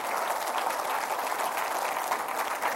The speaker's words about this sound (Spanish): ¿Cuántos dicen gloria a Dios? y le puede dar un grande aplauso al Señor.